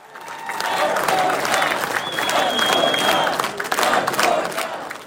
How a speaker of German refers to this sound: Vote for Dog ruft das Publikum im Konferenzzentrum von Peckville am Stadtrand von Scranton. Die Leute warten auf Doug Mastriano, Gouverneurskandidat der Republikaner für Pennsylvania.